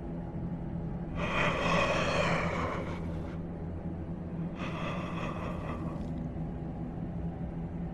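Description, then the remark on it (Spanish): Two long, heavy, agitated breaths, an inhale and then an exhale, heard over a telephone line, rasping loudly over a steady low hum, with a short pause between them. “Contesté con enfado y lo único que pude escuchar del otro lado de la línea fue una respiración extraña, agitada.”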